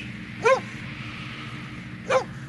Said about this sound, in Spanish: Después de tantas horas de caminar sin encontrar ni una sombra de árbol, ni una semilla de árbol, ni una raíz de nada, se oye el ladrar de los perros.